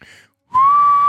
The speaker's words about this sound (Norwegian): Kan du prøve på en ting, da? Kan du ja. prøve å plystre?